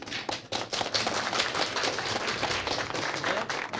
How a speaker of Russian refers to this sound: Супер. Аплодируем.